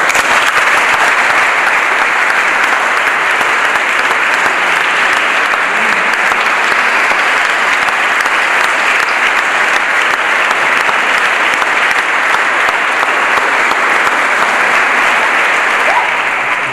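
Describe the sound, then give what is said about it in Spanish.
A crowd of wedding guests at a Christian wedding applauds warmly for the newly married couple, a dense, steady patter of many clapping hands that stays loud and even for the whole stretch, with no talking over it. “se lo vamos a manifestar con un afectuoso aplauso.”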